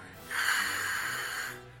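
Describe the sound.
A person makes a sustained hissing sound with their mouth, voicing a frightened creature with fangs, a breathy rasp lasting over a second at moderate loudness with no speech around it.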